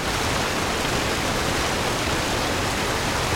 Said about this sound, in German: So, jetzt wieder ein Wasserfall.